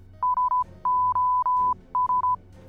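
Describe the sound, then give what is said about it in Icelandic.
The SOS distress signal sent in Morse code: a steady mid-pitched beeping tone playing three short pips, three long dashes, then three short pips, over a faint low hum. “Í dag þekkjum við betur neyðarmerkið SOS sem hljómar svona í morskóða.”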